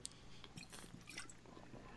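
Someone takes a quiet sip of beer: soft wet slurping and mouth clicks, then a faint swallow, with no talking.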